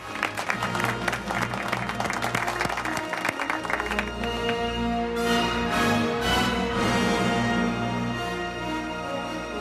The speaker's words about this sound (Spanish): Fuerte el aplauso para Miguel Ángel Muñiz, Jimmy Pepín. ¡Grande!